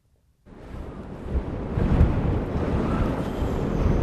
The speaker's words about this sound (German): Der Wind ist eisig, die Luft dünn und glasklar.